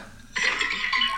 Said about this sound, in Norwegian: Ja, det, det var lyden av at han gikk i drit.